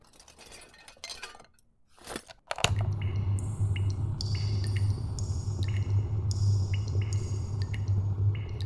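A storm echoing inside an emerald mine: sparse glassy clinks and drips, then a steady low roaring rumble with bright crystalline chimes ringing over it, continuing without pause.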